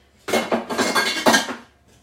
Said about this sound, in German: So, dann hole ich schon mal den Mixer raus, den lege ich dann mal an die Seite.